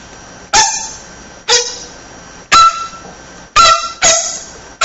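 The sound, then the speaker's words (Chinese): A bamboo flute plays five sharply tongued, bright notes at uneven intervals, each quickly fading, with the pitch shifting between them, using the tonguing technique to imitate water dripping from the spring at Xianren Cave on Mount Lu; the last two come close together. “就这个技术，他在这个曲子大量使用，因为他要模仿那个滴滴泉那个滴水声音。”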